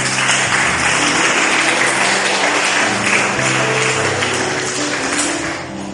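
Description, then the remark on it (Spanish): An audience applauds the Lord during a church sermon, steadily for several seconds, a dense wash of many hands clapping at once, with a low musical hum underneath, tapering slightly at the end. “Denle un aplauso al Señor, por favor, si es tan amable.”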